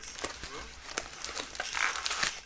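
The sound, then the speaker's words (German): Busy crinkling and rustling of plastic packaging as something is rummaged through, with irregular sharp crackles and scrapes throughout and no clear talking. “Er wühlt und wühlt.”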